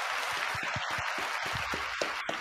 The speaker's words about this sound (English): Round of applause to you, my brother.